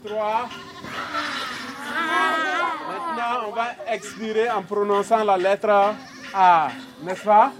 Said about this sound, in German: Von der anderen Seite der Senke sind Kinder zu hören. Musikunterricht vor einem der roten Lehmziegelbauten, die hier in den letzten Jahren errichtet worden sind.